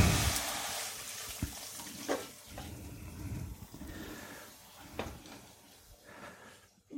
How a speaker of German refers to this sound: Dann mache ich noch mal kurz die Pfanne etwas sauber.